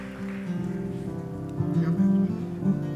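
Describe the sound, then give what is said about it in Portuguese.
An audience applauds the Lord during a worship service in a steady, dense patter of clapping that holds for about three seconds, swelling slightly near the end, with sustained low musical tones humming underneath. “Dá uma grande salva de palmas ao Senhor.”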